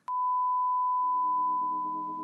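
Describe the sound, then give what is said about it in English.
A steady 1,000 hertz pure test tone starts abruptly and holds unwavering for about two seconds, loud and clear, while softer lower tones creep in beneath it during the second half. “And 1,000 hertz sounds something like this.”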